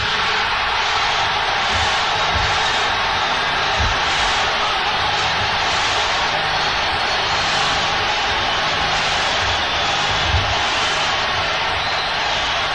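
A large concert audience applauds and cheers in a dense, steady roar of clapping that stays loud and unbroken for the whole stretch, with no speech over it.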